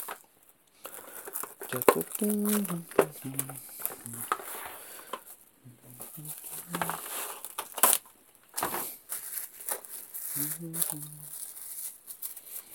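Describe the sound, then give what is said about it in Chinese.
Plastic cling film crinkles and rustles in irregular bursts as it is stretched over a plate of cod before steaming, while someone hums short tuneful phrases in between. “保鲜膜把我的这个鱼盘包上，然后放到油放到锅蒸锅上去蒸。”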